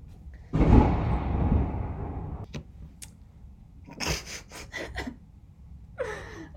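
A deep roll of thunder booms outside and slowly rumbles away over a couple of seconds, followed by a few sharp crackling bursts and a brief breathy rush near the end.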